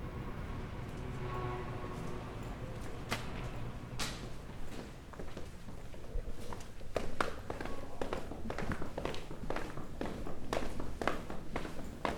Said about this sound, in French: En entrant par la porte vitrée en face, je prends l'escalier en colimaçon avec de grandes marches plates qui obligent à marcher un petit peu bizarrement. Je me demande quel architecte a eu cette drôle d'idée. C'est ni une pente, ni un escalier.